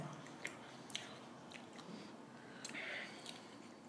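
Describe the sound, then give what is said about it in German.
Loud, open-mouthed chewing: a series of wet smacks and clicks in an uneven rhythm, about six or seven over a few seconds, with no talking. “irgendjemand sollte dir mal beibringen, mit geschlossenem Mund zu kauen.”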